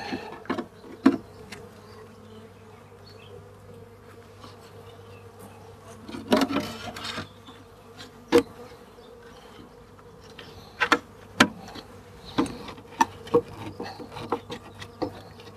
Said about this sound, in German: So, ganz vorsichtig ohne die Bienen zu rollen oder zu quetschen. So, sehr schön.